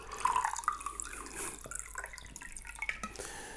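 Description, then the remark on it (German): Water is poured into a glass, a steady splashing trickle with gurgling, bubbly tones running for a few seconds, with no one speaking. “Ich habe übrigens neulich mal versucht, das äh, Wasser einschenken aus einem Podcast rauszuschneiden.”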